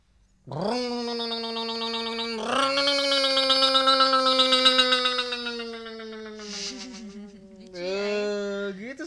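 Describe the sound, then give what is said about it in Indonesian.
A voice imitates a bajaj auto-rickshaw engine going by: a long, buzzy, droning hum that steps up in pitch, trails off, then returns in a short final burst, fairly loud. “Ayah bisa nih, baja lewat nih ya.”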